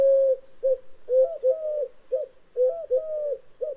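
A collared dove coos repeatedly in a steady, persistent rhythm, its soft low hooting phrases clear, with no talking over it.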